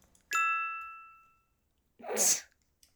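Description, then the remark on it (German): A bright app checkmark chime, played as desktop audio when ticking off a task, rings once and fades out over about a second, then after a pause a short, sharp burst of noisy sound follows. “Und ich möchte dazu kurz meine Desktop-Audio teilen, weil das ist einfach so ein satisfying Geräusch.”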